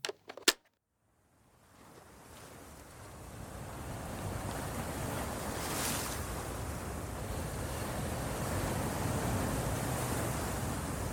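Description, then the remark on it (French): Rough, stormy sea waves on a beach in northern France on a starless, icy night with a very high tidal coefficient roar in a dense, continuous rush that swells up after a couple of brief clicks, with gusting wind buffeting the microphone; no voices. “C'est une nuit sans étoiles, sur une plage du nord de la France. Le coefficient de marée est très fort, la mer est déchaînée et la nuit glaciale”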